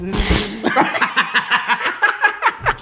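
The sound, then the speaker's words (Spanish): A voice makes a quick, sputtering burst imitating a fart, then breaks into rhythmic laughter for the rest of the moment. “Que, parece que tronaste así como un globo. que, que estornuda tu culo, güey.”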